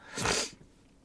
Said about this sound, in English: Ooh, so sorry about that. Uh, uh, I had to sneeze. I tried to cut the audio in time, I didn't quite get there.